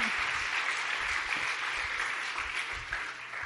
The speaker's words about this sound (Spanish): Aleluya, alguien lo entendió y debe aplaudirle al Señor.